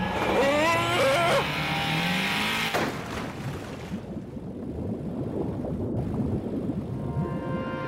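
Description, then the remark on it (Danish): A loud, shrieking tire skid with wavering, squealing tones as a car whose brakes are not working skids, cut off by a sudden crash, followed by several seconds of rumbling, crackling noise. “Hvorfor fanden virker bremsen ikke?”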